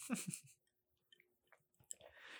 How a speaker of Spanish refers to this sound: ay, voy a darle un trago otra vez.